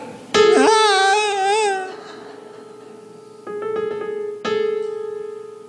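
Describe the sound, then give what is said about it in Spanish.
A steady held note sounds while a wavering, whiny voice-like tone clashes against it off-key, then two shorter dissonant bursts follow over the continuing drone. “Ahora hazme una nota discordante.”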